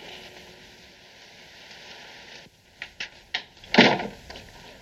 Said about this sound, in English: Just a moment. Come in, Pearson, and close the door.